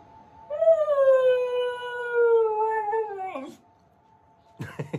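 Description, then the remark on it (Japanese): A Hokkaido dog named Toyoichiro lets out one long, sustained howl lasting nearly three seconds, loud, tapering off at the end, followed by a brief pause and a few short vocal sounds, on a morning walk along the Toyohira River riverbank on a clear, cool autumn day. “おしまいもういいのおワンワン言ったのもう一回言ったらおワンワンもういいなおしまいだそうです”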